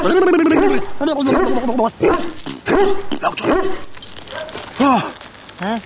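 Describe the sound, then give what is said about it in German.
A chained, angry dog growls and snarls loudly and almost continuously while pulling hard at its chain, breaking into sharp barks and strained, whining yelps, with a voice faintly mixed in. “der Hund hängt an der Kette. Jetzt sehe ich es auch. Oh, der reißt aber ganz schön daran.”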